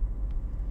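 A steady, low engine rumble from a moving car fills the brief moment, a dense continuous drone with no voices over it.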